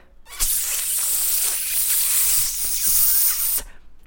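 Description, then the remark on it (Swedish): A voice imitates a forceful urine stream pushed out while sitting on the toilet, a steady, loud hiss held for about three seconds, starting abruptly and cutting off sharply, with no words spoken. “När jag kissar på toaletten så pressar jag ut pisset.”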